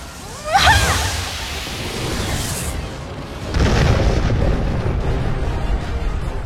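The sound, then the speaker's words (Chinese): A lightning arrow, formed from lightning gathered on the bowstring, is shot with full force from a longbow and opens a path through monsters: a sudden crackling, sizzling whoosh tears out, then a loud rolling rumble builds into a second heavy, booming surge that roars on to the end. “艾薇全力射出的闪电剑在魔物之中打开了一条通路。”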